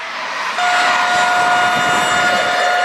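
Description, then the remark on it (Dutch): A loud train horn blares in one sustained, steady tone, starting abruptly after a brief moment of rumbling noise and holding until the end, with no voices; a train near Voorschoten station, between The Hague and Leiden, Netherlands, in the middle of the night around half past three. “Weer een heel hard getoeter en weer nog veel meer schudden in ons bed.”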